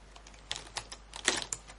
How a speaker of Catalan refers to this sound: Era una caixa de rotuladors i estàvem escoltant com estaven ordenant els rotuladors dins oh, de la caixa.